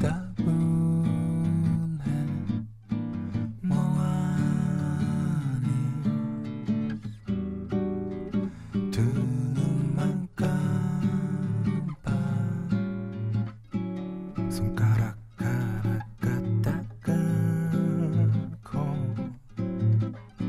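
A song plays steadily, with a sung vocal over guitar and backing instruments, full and close, with brief dips between phrases and no talking over it.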